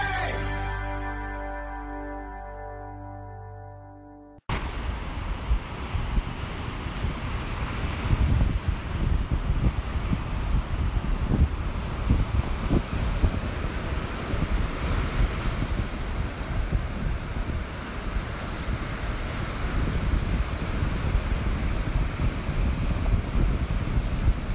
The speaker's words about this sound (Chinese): 听了二十秒的大海的声音，你觉得有人还在继续听我们的节目吗？